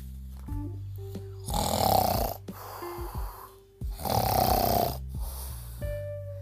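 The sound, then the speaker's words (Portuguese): Two long, loud snores from a mummy, each a rasping, rattling inhale with a gap between them, over low tonal background sounds. No one speaks. “Ninguém conseguiu dormir a múmia roncava muito alto.”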